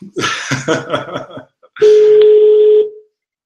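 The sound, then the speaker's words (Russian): Telephone dialing to call a company director, and a dial tone: a burst of short, busy tones gives way to a steady, fairly loud hum held for about a second before cutting off. “Э, я могу сейчас его на, на трубочку набрать, у меня остался телефон.”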